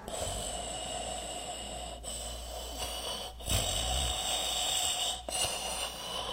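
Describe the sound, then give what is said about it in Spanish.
A grandfather who has sat down at a church service snores loudly and steadily, a rasping drone broken by brief pauses for breath every couple of seconds, with no talking. “Un diácono dentro le buscó un lugar, mas al sentarse empezó a roncar.”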